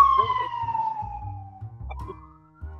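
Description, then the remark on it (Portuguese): A police car siren wails in a steady tone that slowly drops in pitch as the vehicle passes, with a low engine rumble pulsing underneath for a few seconds. “A viatura.”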